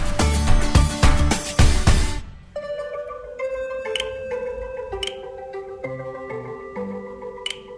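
A 17-year-old girl plays the video game Spot Warriors on her mobile phone: a loud burst of rapid, punchy electronic hits, then bright synth bleeps, chimes and clicks sounding one after another in a steady game-like pattern, with no voices.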